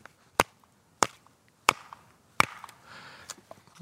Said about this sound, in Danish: Øh, man kan slå træet mod hinanden. Ja, og det kan vi jo lige prøve.